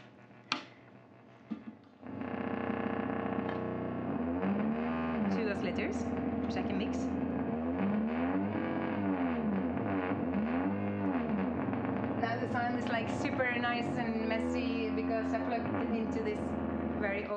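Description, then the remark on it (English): A few faint clicks, then a loud, gritty drone from a Drone Commander synthesizer, made by Eric Archer of Rare Waves in Austin, Texas, kicks in and holds steady, warbling with repeated swooping pitch bends and bursts of high, chirpy bleeps, played through an old small keyboard amplifier. “the drone commander was made by Eric Archer of Rare Waves in Austin, Texas.”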